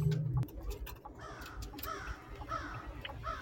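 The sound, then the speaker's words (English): A crow caws repeatedly in harsh, rasping calls spread across a few seconds, heard over a low rumbling background, with one brief sharp click near the start. “Oh wait, here's the crow.”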